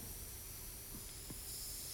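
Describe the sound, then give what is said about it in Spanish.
Air hisses steadily out of a balloon in a continuous, fairly soft rush, with a couple of faint squeaky chirps partway through and no voices. “La única manera en que tú puedes aplastar este globo, si fuera indestructible, como tu vida en Cristo lo es, es si le sacas el aire.”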